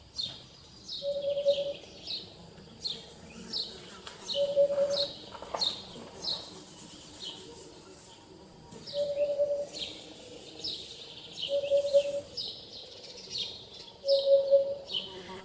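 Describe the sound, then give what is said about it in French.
A bird calls a low, hollow whoop over and over at steady intervals, clear, while other birds chirp and tweet busily in the background. No one speaks. “son cri, c'est une espèce de whoop whoop whoop.”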